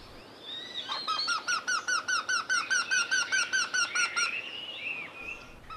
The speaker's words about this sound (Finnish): Tämä käänpiikapari on äänitetty Nastolassa Arrajoen rantamaisemissa muutama vuosikymmen sitten.